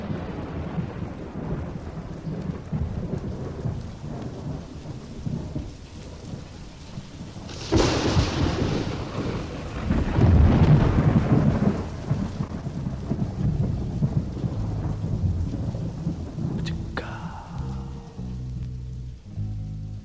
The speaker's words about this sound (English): Turn your ear to the rain sounds. Listen to the sidewalks talking.